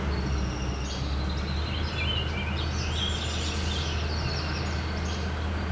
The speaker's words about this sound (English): Orchard Oriole. Just still around here somewhere. And it rightfully lists it as an uncommon bird.